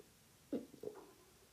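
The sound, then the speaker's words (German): A stressed dog's stomach rumbles quietly, two short low gurgling bursts in quick succession, faint, with no voices. “ihr Magen irgendwelche komischen Geräusche macht.”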